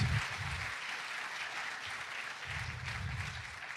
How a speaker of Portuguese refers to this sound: Dá uma de palmas para Jesus.